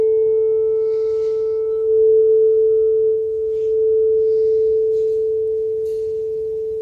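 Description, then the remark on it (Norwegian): A tuning fork rings with a steady, pure mid-pitched tone that holds loud and unwavering for several seconds, with faint higher overtones and a low background rumble beneath it. “som har det samme materiell, materialet og er helt lik, på en måte den samme ånd i seg, så begynner den neste stemmegaffelen å synge med uten at noen har vært og dunka i den.”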